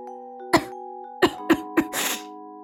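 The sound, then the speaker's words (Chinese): A woman sitting on a chair by the roadside coughs four times in short, sharp bursts, followed by a longer, breathier cough, over a steady low tonal hum with no talking. “一位女士坐在路旁的椅子上，咳嗽了几声。”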